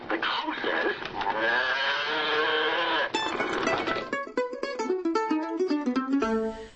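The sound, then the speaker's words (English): A person's voice imitates a cow, letting out a long, drawn-out moo, followed by a shorter wavering lowing call with a bleating edge. “the outcry of the cow. Moo!”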